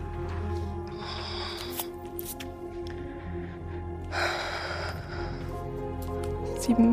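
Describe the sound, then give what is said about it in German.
Two short bursts of rattling clatter as dice are shaken and rolled onto a table for a Perception check in a tabletop game, one early and one a few seconds later, over a steady low background hum. “Also okay, würfel auf Perception.”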